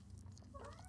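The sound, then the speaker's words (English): A cat makes a short, soft vocal sound, faint, ending with a quick sharp click; a low hum sits underneath and no one speaks. “apologize for my cat.”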